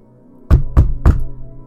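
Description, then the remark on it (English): Three firm, evenly spaced, loud knocks on a wooden door, with a short hollow ring after each and no voices. “Uh oh, someone's at the door.”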